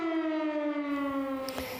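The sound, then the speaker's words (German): A civil defense warning siren wails steadily, its tone slowly sliding lower, with no voices over it. “Ja, Handywarnungen waren das eine, Sirenen das andere.”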